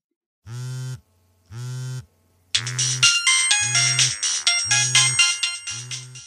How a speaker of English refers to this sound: It's the office calling again. Don't answer it.